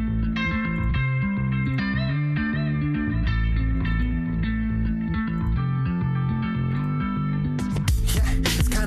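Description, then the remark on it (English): An artist's re-recorded version of their own hit pop single, featuring a local Las Vegas rapper, plays steadily at full volume, with a thick bass line and effect-laden, slightly distorted guitar, ending in a bright burst of cymbals. No one talks over it. “So I'm just going to give it a little bit of a spin and see how close to the original it is while I have you guys here.”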